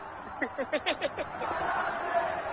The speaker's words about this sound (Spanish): ¿Qué había gente en el Libertadores de América gritando el gol de Leandro Fernández?